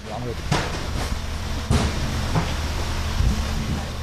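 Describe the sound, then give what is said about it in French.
A delivery driver shuts his delivery truck's cargo door after more than 40 minutes of careful loading, with a few sharp metallic knocks and thuds spread over a few seconds against a steady low rumble of street and engine noise. “Après plus de 40 minutes de rangement minutieux, il peut enfin fermer son camion et partir.”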